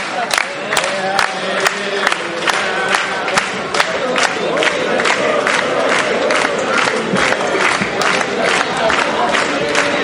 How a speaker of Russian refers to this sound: А сейчас мы разобьем тарелку